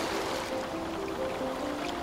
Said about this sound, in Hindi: marine drive चले जाओ तो समंदर की लहरें तुम्हें चूमने आती हैं